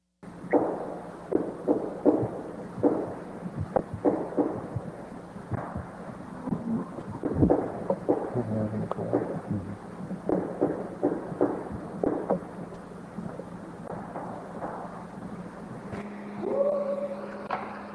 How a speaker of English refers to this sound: So I got some Bigfoot sounds if you'd like to hear some. And these were supposedly recorded in the, the Sierra Nevada's back, like in the 1970s or 80s. We'll go ahead and play these.